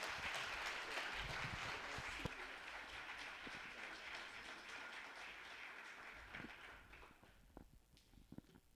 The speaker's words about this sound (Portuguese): Vamos receber o pastor aplaudindo a Jesus mais uma vez? Glórias.